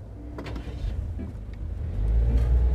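Steady low rumble inside a car while driving around 9 in the morning, with engine and road noise droning throughout and swelling louder toward the end; a few faint clicks and rustles sit on top.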